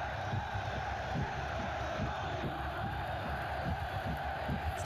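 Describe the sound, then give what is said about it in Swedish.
A huge football stadium crowd roars continuously before kickoff of a big match, a dense, sustained wall of voices with scattered shouts and cheers rising out of it, loud throughout. “Det är bara riktigt stora matcher som vibrerar så här.”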